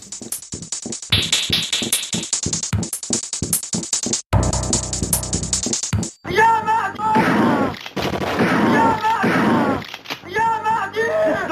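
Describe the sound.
Rapid bursts of loud video game gunfire crackle in quick succession, giving way to a dense roar of noise, then voices shouting in Arabic over continuing shots and a heavy, chaotic game soundscape.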